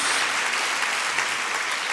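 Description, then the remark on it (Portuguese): A crowd applauds the Lord, clapping steadily and densely, a continuous wash of many hands applauding at full volume for the whole stretch, with no pauses and no voices rising above it. “Dá uma salva de palmas ao Senhor, dá um glória a Deus aí, em nome de Jesus.”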